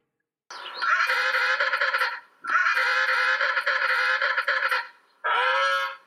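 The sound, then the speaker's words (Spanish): A penguin calls with loud, harsh braying honks in three long drawn-out bursts separated by short pauses, the last one cut off. No one speaks. “¡Un pingüino! Así es, es el pingüino.”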